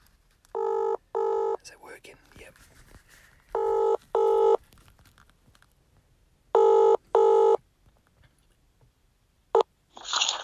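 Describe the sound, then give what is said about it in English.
A WhatsApp call ringing tone sounds clearly in three double-pulse rings separated by pauses, with faint background rustling, before the call connects and a voice begins right at the end. “I'm using WhatsApp for the first time, so hopefully it works fine. Let's uh, let's give him a buzz.”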